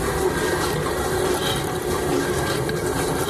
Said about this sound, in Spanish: Oh, si es que dispara agua, Leslie. Y con fuerza. Con fuerza, pero aún no le logra quitar el, digamos así, la, la grasa a los trastos.